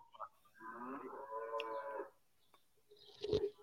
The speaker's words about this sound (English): I'm sorry because of the voice of the cows.